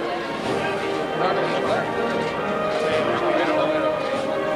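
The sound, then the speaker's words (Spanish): A brass procession band plays the Ave María faintly in the distance as a procession passes along calle Tetuán at its crossing with Alvareda, its sustained notes half-buried under the steady murmur and chatter of a dense street crowd. “porque acaba de entrar en la calle Tetuán, está pasando ahora mismo por el cruce con Alvareda y la, la banda viene tocando el Ave María. No sé si se puede oír porque estoy un poco alejado del paso porque la bulla que hay es considerable.”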